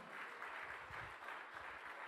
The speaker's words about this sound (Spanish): El Señor nos da la victoria. Del otro aplauso, vamos.